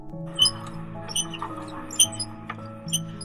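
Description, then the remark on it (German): A small, very heavy red cast-iron hand-cranked bean slicer made by Alexanderwerk of Remscheid cutting beans: a steady low grinding drone with sharp metallic squeaks recurring roughly every half to one second as the crank rotates. No voices. “Man kann natürlich auch per Hand schneiden oder mit der Küchenmaschine. Aber ich habe noch so ein kleines rotes Gerät aus Eisen.”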